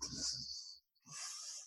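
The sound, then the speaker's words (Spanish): A voice mimics a large condor sweeping past with two breathy, hissing whooshes split by a brief silence, fairly loud, with no other sounds around it. “Cuando te pasan por al lado, suena así.”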